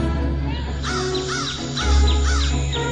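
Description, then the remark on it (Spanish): Exotic birds nesting on the wings of the Angel of Independence monument call repeatedly in harsh, cawing bursts, roughly five or six in quick succession, over a steady low rumbling background. “Las alas del Ángel de la Independencia se convierten en el nido de una gran variedad de aves exóticas.”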